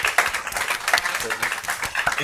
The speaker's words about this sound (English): So let's give him a clap for um, that.